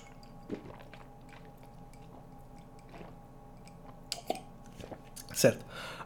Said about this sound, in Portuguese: Com licença, vou beber água.